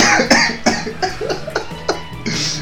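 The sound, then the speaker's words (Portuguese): A loud fit of repeated harsh coughing from someone who has just choked, several rapid bursts in a row with short gasping breaths between them. No talking. “Eu tive um problema agora que eu me engasguei.”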